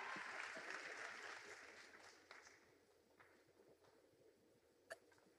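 Audience applause, a dense burst of many hands clapping that fades gradually over several seconds, leaving a few scattered claps and room noise near the end.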